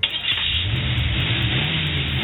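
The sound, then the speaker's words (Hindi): A car engine revs up and holds a steady, rising drone as the car pulls away with a woman who has just got in, in a TV serial scene, loud with a low rumble throughout and no voices. “ये मैसेज करके वो शक्ति को गाड़ी लाने को कहती है और फिर बाहर निकल के वो गाड़ी में बैठ निकल जाती है”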